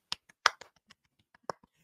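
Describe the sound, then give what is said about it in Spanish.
Seal-style clapping during a gossip broadcast, given as credit to Edwin Palencia for an exclusive: a handful of sharp slaps in an uneven rhythm, three loud ones standing out among softer taps, with no voices. “Mira, aplauso de foca”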